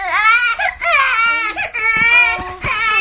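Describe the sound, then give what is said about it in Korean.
A baby cries loudly in sustained wailing bursts with brief catches for breath, continuing for the whole stretch without any other voices. “왜 그래, 아기야. 어, 여기서 울면 안 돼.”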